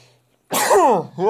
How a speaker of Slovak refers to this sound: chce sa mi kýchnuť, ty kokos.